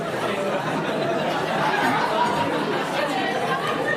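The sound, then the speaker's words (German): An audience chatting at once as people turn to their neighbours to say the first word that comes to mind about Christmas, many overlapping voices forming a steady, lively murmur with occasional bits of laughter, no single speaker standing out. “Hey, dreh dich doch mal zu deinem Nachbar um und Achtung, Sag ihm das allererste, was dir einfällt zu Weihnachten.”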